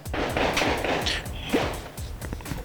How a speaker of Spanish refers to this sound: Este, ¿qué celebramos? ¿Mi cumpleaños todavía? no sé, es que alguna parroquia aquí cerca tiene cohetes y cohetes y cohetes, porque alguna festividad tiene.